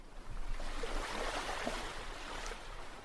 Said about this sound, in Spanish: Bueno, el agua ahí está. Bueno, digamos que ya llegaste con la lancha. Se para la lancha, se oye así.